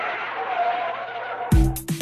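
A car's brakes screech in a long, steady, squealing hiss for over a second, then cut off into a couple of loud, low, booming bursts as the vehicle stops. No one speaks.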